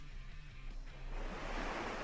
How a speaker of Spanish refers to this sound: Pero de fondo estaba ya, era de noche, se escuchaba el mar nada más, ya no lo veía de noche.